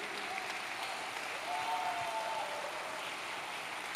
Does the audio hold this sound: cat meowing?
no